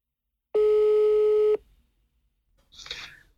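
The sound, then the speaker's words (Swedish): A single steady telephone ringback tone of an outgoing call to a dermatologist at the Hudläkargruppen clinic in Stockholm sounds for about a second, loud and clean, followed by a pause and a brief muffled rustle like a phone being picked up. “Men jag tänkte så här, kan vi inte ringa upp”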